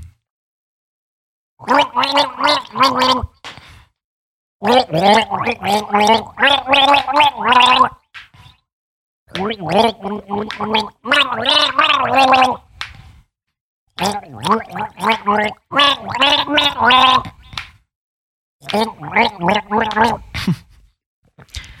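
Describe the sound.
A voice sings a song through a snorkel for listeners to recognize, the melody coming out muffled and bubbly in several loud phrases separated by short pauses.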